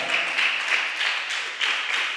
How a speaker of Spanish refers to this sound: Dele un aplauso al hermano, ya se puede sentar.